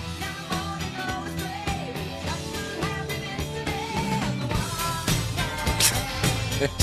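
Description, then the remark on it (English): A song plays continuously at a fairly loud, steady level, with layered instruments, sustained melodic tones and a regular rhythmic pulse, and no talking over it. “it sounds like this sounds like it should be in a Muppets movie.”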